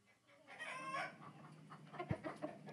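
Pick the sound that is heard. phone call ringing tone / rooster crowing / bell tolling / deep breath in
rooster crowing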